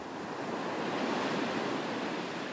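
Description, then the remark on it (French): Steady, full-bodied roar of sea surf washing onto a shore, a continuous rushing hiss with no distinct pauses between waves, moderately loud, with no voices. “La première chose à laquelle j'ai pensé quand j'ai commencé à me pencher sur le captage de CO2, c'est la mer.”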